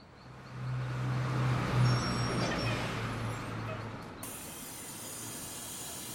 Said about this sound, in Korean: 스스로를 타이르는데 버스가 도착했다. 연우가 먼저 버스에 탔다. 나도 버스로 향했다.